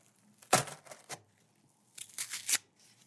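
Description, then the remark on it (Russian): A small parcel, the first delivery, being unpacked to reveal a lighter: two bursts of crisp tearing and crinkling packaging, a sharp rip followed by rustling, a pause, then another crackling tear. No one speaks. “Давайте сразу распакуем и посмотрим, что мне напредсказывали.”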